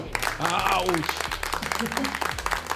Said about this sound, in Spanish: William, sos grande amigo, sos grande. Un aplauso para William, por favor.